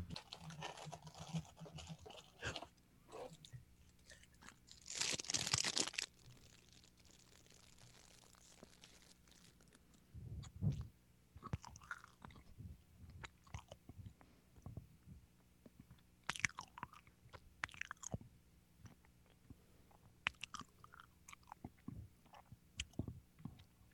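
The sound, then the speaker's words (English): Wet chewing of a soft Little Debbie Be My Valentine snack cake, with irregular mouth clicks and bites over about twenty seconds, plus a brief loud crinkle early on; no one talks. “I can't chew and laugh.”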